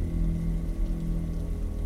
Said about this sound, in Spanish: Una tarde, mi abuelo se encontraba en la cochera de la casa, observando cómo caía la lluvia